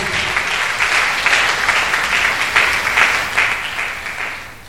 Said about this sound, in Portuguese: Se você entende isso, aplauda o seu bem forte nesta manhã. Faça isso.